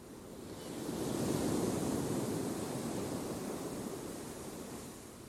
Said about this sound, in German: Mein Atem kommt und geht wie der Ozean. Die Wellen des Ozeans schwellen an und sie schwellen ab. Sie heben mich hoch und lassen mich fallen.